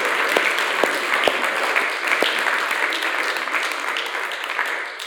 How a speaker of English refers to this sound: Why don't we give her a round of applause uh, for putting that all together for us?